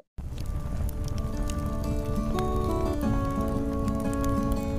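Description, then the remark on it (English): A steady crackling and popping like a campfire burning continuously, with soft sustained musical tones of a campfire tune running underneath and no talking. “Do I hear a campfire? Do I hear a campfire tune?”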